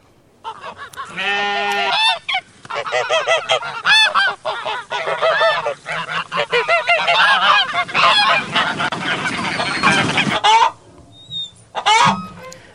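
A flock of farm geese honks loudly and continuously, many harsh calls overlapping for about ten seconds, then a brief pause and a couple of final honks.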